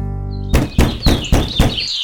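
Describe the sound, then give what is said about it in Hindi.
Four firm, evenly spaced knocks on a wooden door ring out loud after a moment of low hum, with faint birdsong high in the background. “फिर एक दिन जब पूजा के दौरान भूख से उनकी आंखें मुदी जा रही थी कि अचानक दरवाजे पे खटका हुआ”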